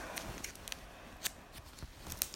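Crinkly plastic packaging of trading cards being torn and pulled open, a series of short sharp rustles and snips with brief pauses between them, no voices present.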